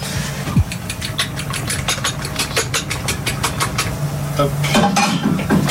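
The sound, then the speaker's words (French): Dishes and metal utensils clatter in quick, irregular clinks inside a cycling team's kitchen truck, over the steady low hum of its idling engine. “Voilà, ça fait une dizaine d'années que ce système de camion cuisine existe.”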